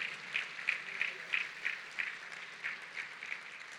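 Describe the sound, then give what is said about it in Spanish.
An audience claps together in praise of the Lord in a steady, even rhythm, about three sharp claps per second, moderately loud and sustained throughout. “Si lo crees, dale gloria, dale palmas, dale alabanza al Señor y a su promesa.”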